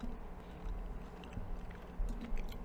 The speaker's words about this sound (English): So here's the last bean for tonight and I have to eat it quick because uh, so, then it shows up in the thing. So and I'm chewing it quick because I really want them.